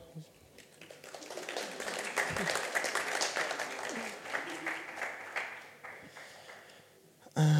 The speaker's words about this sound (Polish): Dzień dobry, brawa.